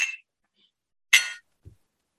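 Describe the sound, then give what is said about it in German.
Two bright glass clinks as glasses are touched together in a toast, with a short pause between them, followed by a soft low knock. Clear, with no talking. “also ich finde ja erstmal anstoßen ist immer die richtige Wahl. Zum Wohl.”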